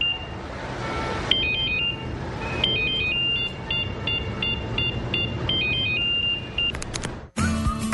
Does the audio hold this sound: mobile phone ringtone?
yes